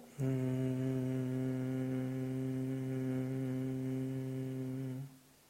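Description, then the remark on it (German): A person hums a steady, low bee-like tone for about five seconds on one long exhale, even in volume, then it stops abruptly. “Beim Ausatmen Summklang.”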